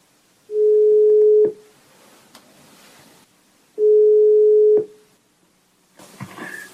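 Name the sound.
phone ringing tone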